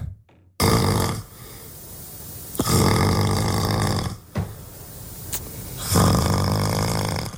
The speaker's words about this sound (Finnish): Niin, siis kyse on sun, sun kuorsaus, eikä sitten puolison. Joo sehän tässä onkin. Et en varsinaisesti ole tehnyt mitään väärää. Mä oon vaan nukkunut.